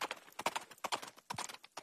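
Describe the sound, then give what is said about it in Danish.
Racehorse hooves clip-clop in a quick, steady rhythm, a run of sharp, fairly loud hoof strikes, with no voices over them. “nej, jeg tror faktisk, det er en vedløbshest, men den, blev, øh, den, øh, den tog sig lidt bedre ud end øh, de andre heste, som var øh, springheste.”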